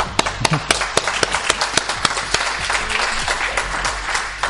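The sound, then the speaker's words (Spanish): A live audience applauds two regular listeners who are present, for about four seconds, a steady patter of clapping punctuated by a few sharp, louder individual claps, with no one speaking over it. “Aplausos.”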